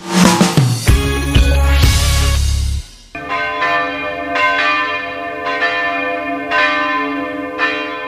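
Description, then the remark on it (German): Hand-rung bells of St. Stephan church in Berg am Laim, Munich, the only bells in the city still rung by hand, peal steadily, striking about once a second with rich, lingering overtones, following a brief loud, dense burst of sound at the start; no one speaks. “Ja, so klingen die Glocken der St. Stephan Kirche in Berg am Leim hier bei uns in München.”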